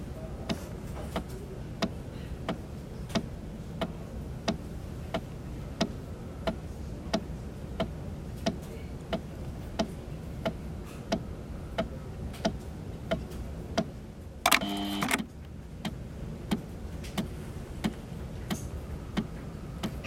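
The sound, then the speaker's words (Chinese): A chemotherapy infusion machine running, giving off a steady, evenly spaced mechanical ticking over a low hum, interrupted once near the end by a short, harsher whirring burst. “对，所以在这边分享一下这个机器具体叫什么名字，我是不知道，那就姑且称它为化疗机吧。”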